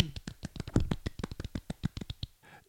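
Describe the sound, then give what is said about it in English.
A small round of applause: a few people clapping in a quick, uneven patter of sharp, soft claps for a couple of seconds, then trailing off into faint rustling. “Small round of applause.”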